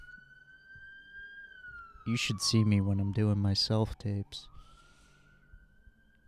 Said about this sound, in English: Sorry about the sirens. I live on a main street. It's unavoidable.